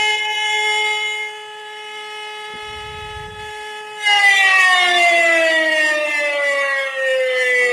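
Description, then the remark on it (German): A civil defense warning siren, a recording from the Bavarian Interior Ministry's website, wails loudly and continuously, holding a steady tone at first, then swelling and sliding gradually downward in pitch through the second half. A brief low rumble sits underneath midway. “kannst du das mit den Sirenen noch mal kurz einfach erklären, wozu die da sind?”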